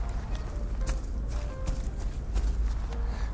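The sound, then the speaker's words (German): Squelchy footsteps on soft, muddy ground while out walking with a dog, a handful of wet steps at a loose walking pace over a steady low outdoor rumble, with no one speaking. “und also wenn ihr dann ein äh, manchmal komisches Schmatzen hört,”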